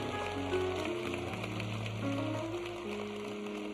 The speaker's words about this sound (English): If you love Jesus and you really don't care who knows it, clap your hands and give God big praise today.